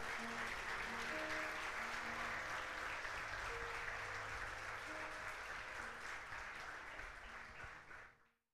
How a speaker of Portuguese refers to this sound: Aleluia! Pode aplaudir o Senhor.